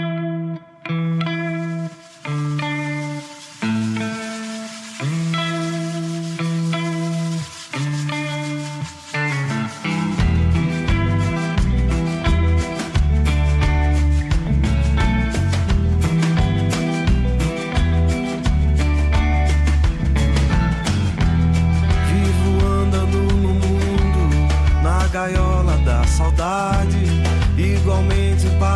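A ciranda song opens with a sparse, effects-laden melodic line in short phrases, then a full band with deep bass and steady percussion comes in loudly and keeps a driving groove.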